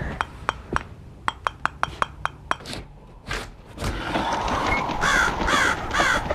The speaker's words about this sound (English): See to it. It's rats. I've already seen it. It's some bird trying to get in. Send them away. I won't sleep with that noise.